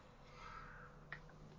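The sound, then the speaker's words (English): A crow caws faintly, a drawn-out call followed by two short, sharp caws against a quiet, low background hum. “You said if he picks up the key, and then I could hear a crow in the background going.”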